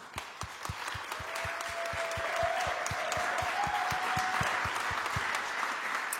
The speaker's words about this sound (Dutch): Dus geef ze een groot applaus.